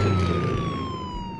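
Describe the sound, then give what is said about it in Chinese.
The siren of a red water-tanker fire engine driving at full speed wails steadily as cars on the road move aside, its tone sliding slowly downward over a low rumbling engine, loud throughout with no voices. “在消防车的警笛中，路上的汽车纷纷朝马路两边散开。”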